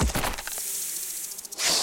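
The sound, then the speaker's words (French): A sharp, hollow crack of a kick striking the skull of a dead horse, one hard impact at the start followed by a trailing hiss and a second bright burst of noise at the end; no talking. “Allez, prends ce coup de pied dans le crâne, stupide canasson de merde.”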